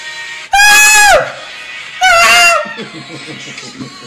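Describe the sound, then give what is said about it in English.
A goat lets out two loud, shrill screams in a song played from a YouTube video, each about half a second long and separated by a short pause, followed by quieter music continuing underneath. “Bro, like that goat, when that, like, I can, if I'm ever in a bad mood, I turn on that video and I'm just like, as soon as that dude, ah, bro, it's over.”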